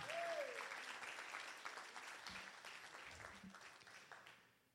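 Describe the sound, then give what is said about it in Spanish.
An audience at a morning church service breaks into loud, sustained applause for Jesus, a dense wash of clapping that starts strong and gradually tapers off, with a brief whistle-like tone near the start. “Si tú lo crees, denle un aplauso fuerte a Jesús en esta mañana.”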